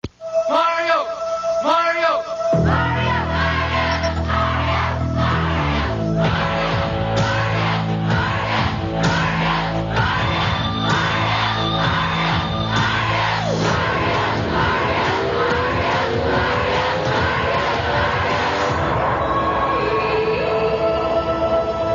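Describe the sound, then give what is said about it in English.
A large group of voices chants loudly in unison, rhythmic repeated shouts that carry on steadily for the whole stretch, with music underneath and rising yells toward the end. “People chanting all over.”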